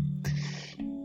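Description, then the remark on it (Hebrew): Crickets chirp steadily in the background on the island of Koh Phangan, Thailand, a thin, continuous high trill layered over a low sustained musical drone of background music with bells, with no one speaking. “אני מקווה מאוד שאתם שומעים את הצרצרים ברקע, בנוסף למוזיקת הרגע ש...”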